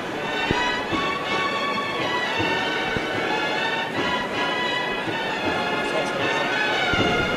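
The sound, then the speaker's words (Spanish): A procession band accompanying the float of the Santísimo Cristo de las Tres Caídas, entering calle San Pablo, plays in the distance, sustained brass-like tones running steadily throughout, with scattered taps and crowd murmur mixed into the wash of sound. “Creo que se puede escuchar la música de fondo.”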